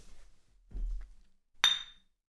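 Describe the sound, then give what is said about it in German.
A single bright clink of glasses touching in a toast, fairly loud with a short ringing tail, preceded by a soft low thump. “Äh, Prost.”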